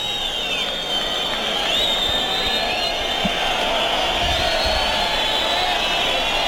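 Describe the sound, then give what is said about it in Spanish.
A large bullring crowd whistles loudly and continuously as the horses approach to drag out the bull, pressing its petition with whistling rather than handkerchiefs; many shrill, wavering whistles overlap above a dense roar of voices that holds steady throughout. “la petición aprieta ruidosamente cuando ven que se acercan los caballos. Aprieta la petición en ruido hay más silbado, silbido que pañuelo.”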